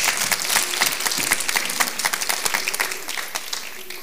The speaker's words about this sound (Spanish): Oh, aleluya. Pongámonos en pie, aplauda a Cristo Jesús.